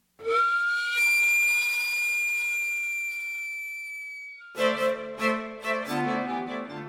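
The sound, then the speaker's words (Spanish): A sweet potato vendor's cart steam whistle lets out a long, steady, shrill tone for about four seconds, then gives way to a run of shorter, lower pulsing hoots. “hay quienes siguen manteniendo la tradición, como el señor del gas o el camotero con su ya conocido pitido.”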